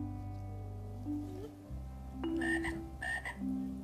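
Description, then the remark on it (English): A frog croaks in a few bursts, with two louder, rasping calls in the second half that rise and fall. Steady low humming tones sit underneath, and no one speaks. “Follow that frog.”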